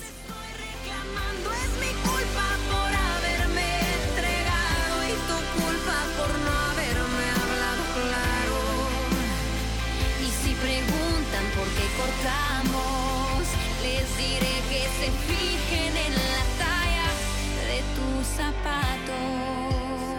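A recorded song plays steadily at full volume, with a rich band arrangement, a thumping low end, and what sounds like a sung melody weaving over it.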